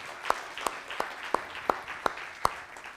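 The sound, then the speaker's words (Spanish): Applause from an audience welcoming first-time visitors and their family, heard as about seven sharp, evenly spaced claps in a steady rhythm over a low background hiss, with no voices. “Un aplauso.”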